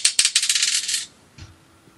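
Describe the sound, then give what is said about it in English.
A die, the fifth and final of five dice rolled, clatters across a hard table in a quick burst of rapid clicking taps for about a second, then stops, followed by a single soft knock. Fairly loud, with no voices. “Dice four, and the final dice, dice number five.”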